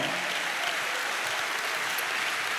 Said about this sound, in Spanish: Dale un aplauso a Cristo por eso, hermano.